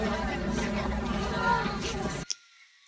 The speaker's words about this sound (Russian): А это толпа. Вот правда, когда мы еще услышим эти толпы... меня они сейчас звучат ужасно празднично.